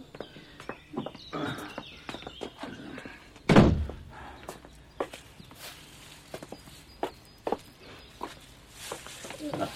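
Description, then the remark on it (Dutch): A door is opened with a heavy thud, surrounded by a run of irregular footsteps and small knocks as someone walks through. “Dan gaan we samen door die deur.”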